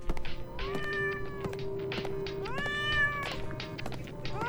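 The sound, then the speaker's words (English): A cat named Soap lets out a series of long, drawn-out, agitated meows, loud, with several rising and falling wails in a row and a steady low background hum. “She sounds pretty mad we moved the couch.”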